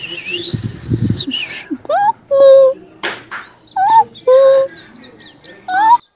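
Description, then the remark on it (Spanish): Several birds of many colours chirp and whistle in the flower-filled garden of a country house, mixing quick high tweets with clear, sliding whistled notes in short bursts, one call answering another against a soft outdoor background. “en medio del bello y verde jardín, rodeado de tantas y diferentes flores de colores que no podrás imaginar, y rodeada de diferentes aves de todos los colores.”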